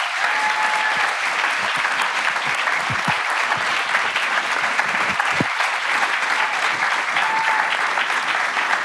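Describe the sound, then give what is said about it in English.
Sustained audience applause as a lifetime award is presented to the Esselstyn family, a dense, steady wash of many hands clapping at an even loudness for several seconds, with a few faint voices mixed in beneath it. “Round of applause here.”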